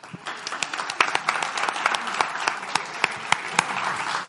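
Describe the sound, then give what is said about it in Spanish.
A live audience at an event breaks into steady applause, dense overlapping claps for a few seconds at moderate volume, with no talking over it. “Y voy a hacer una cosa que es muy de este tipo de eventos, que es pedir un aplauso para ellos, por favor.”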